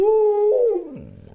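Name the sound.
dog howling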